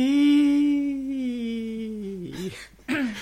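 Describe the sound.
A person imitates a seal or dolphin, holding a long, whiny nasal tone that slowly sinks in pitch, then letting out two short, squeaky voiced yelps.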